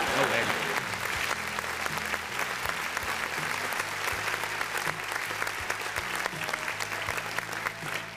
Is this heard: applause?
yes